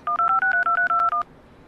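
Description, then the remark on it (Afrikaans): A quick run of about nine cellphone keypad tones, each a short steady dual-pitched beep in an even rhythm, clear, followed by quiet background hiss. “Waar's my selfoon?”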